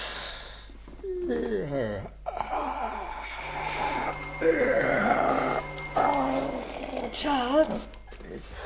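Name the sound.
doorbell ringing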